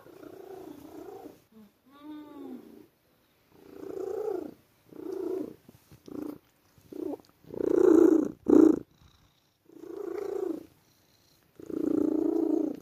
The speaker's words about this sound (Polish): Straszna gaduła jest. To jest kot, który non stop gada.